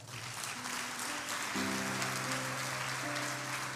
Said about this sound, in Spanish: Usted le da palmas fuerte al Señor.